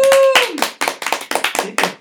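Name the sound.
applause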